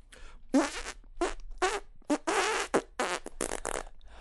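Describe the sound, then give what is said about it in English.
A rapid string of loud, close fart noises, about eight sputtering bursts of uneven length in quick, irregular succession, apparently blown by mouth as a vocal imitation rather than the real thing. “You want to bring me in with some fart noises?”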